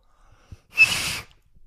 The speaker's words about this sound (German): kannst du pfeifen? Mit Fingern pfeifen?